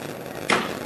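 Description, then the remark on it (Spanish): A single sharp metallic knock from the knocker (llamador) of a Holy Week procession float rings out clearly as the float is lifted, and fades with a brief metallic resonance over a low, steady crowd murmur. “Ahí suena el llamador y se levanta el paso.”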